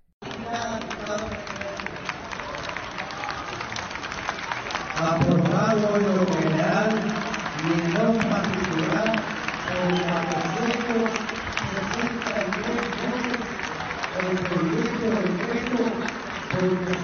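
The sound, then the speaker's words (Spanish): Sustained applause fills a parliament chamber as the reforms to create the Guardia Nacional are approved, a dense steady clatter of many hands, with loud voices calling and cheering over it, swelling a little after the first few seconds. “entre muchísimos aplausos pues como que no se logra”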